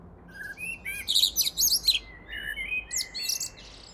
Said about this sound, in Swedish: Det här gör att det inte längre är ovanligt att höra koltrastens kända sång ända in i november.